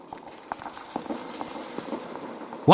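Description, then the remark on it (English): Hurried footsteps click along at a quick, steady pace in a library, fairly quiet against a faint background hiss, before a sudden louder burst of sound cuts in at the very end. “Click, clack, click, clack. Closer and closer came the footsteps, hurried, urgent, the footfalls of a predator closing in”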